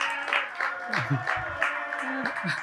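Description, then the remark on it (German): A crew from Biedenkopf-Gladenbach claps and cheers in a steady wash of applause, welcoming a guest, with whoops and excited voices rising and falling over the clapping throughout. “Die Crew jubelt.”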